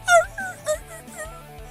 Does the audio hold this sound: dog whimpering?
yes